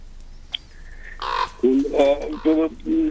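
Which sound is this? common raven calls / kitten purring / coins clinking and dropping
common raven calls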